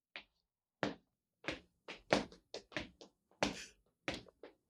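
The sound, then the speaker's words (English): A series of dull, thudding footsteps, roughly a dozen in a slightly uneven rhythm, clear against a quiet background with no one speaking, as someone walks in a garden. “Listen to his footsteps. He's still walking the garden.”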